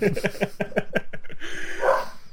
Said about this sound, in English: That's my dog being incredibly uh, incredibly loud.